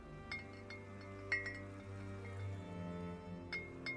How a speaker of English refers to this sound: I can hear the bottles on the breeze now, every day. I hung them all up on the big tree outside my kitchen window, and they sparkle and shimmer in the sun. I walk through them sometimes, tapping the glass and hearing them chime against each other.